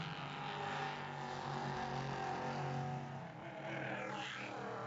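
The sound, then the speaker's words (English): Race cars in an IMSA Prototype Challenge race roar past at Road Atlanta in glorious weather, teammates running down through the S's into turn five. A loud continuous engine drone with a steady tone dips briefly, then a whining pitch sweep as one car goes by. “Those teammates down through the S's into turn five”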